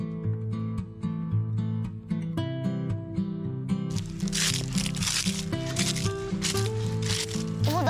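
Dry fallen leaves rustle and crunch in bursts during the second half in an autumn forest, mixed with steady background music that plays throughout.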